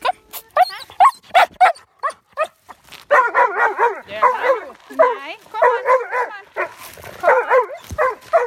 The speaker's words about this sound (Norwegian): Her kom det altså enda en hund.